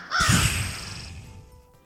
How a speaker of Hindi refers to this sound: कौआ बुझे छे काँव काँव